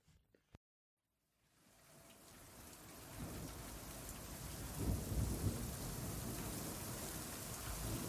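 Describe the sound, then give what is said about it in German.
A thunderstorm with heavy rain: a dense, steady downpour swells in after a brief silence and stays loud throughout, with deep thunder rumbling about midway. “Eilig, aber mit der nötigen Vor- und Rücksicht buxierte Anker ihre älteste Milchkuh Martha durch den mittlerweile vom Regen aufgeweichten, schlammigen Boden in den Stall.”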